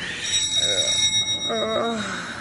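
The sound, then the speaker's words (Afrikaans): A front doorbell rings in two short electric bursts, the first softer and the second louder and fuller, over a faint steady background hum. “Die voordeurklokkie lui.”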